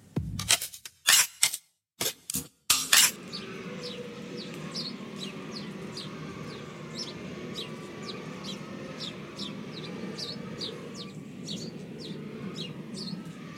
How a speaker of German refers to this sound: Das sind die Schweine hier im Schweinestall, an dem ich gerade vorbeilaufe.